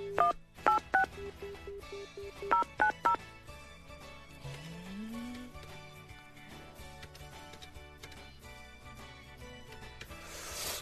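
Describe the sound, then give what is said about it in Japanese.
A rapid series of telephone keypad tones beeps out in two quick bursts, followed by a low tone and a faint, steady line hum as the call connects and rings. “はい、ちょっと電話してみましょうか”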